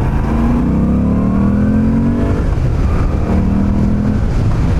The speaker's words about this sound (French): Vous entendez c'est quand même une moto qui donne un petit peu de voix. On est vraiment dans l'esprit custom hein, sur cette euh, moto. On cruise tranquillement à 4000 tours et à 4000 tours ça consomme rien